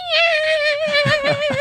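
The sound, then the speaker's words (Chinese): A black cat gives one long, drawn-out meow at night as its owner walks home, high and steady in pitch, holding for well over a second while soft low thumps sound beneath its second half. “当我从那个巷口走进去的时候，你就看到一坨黑影从那个更深的黑里面窜出来，一坨黑色的毛球，然后这边喵。”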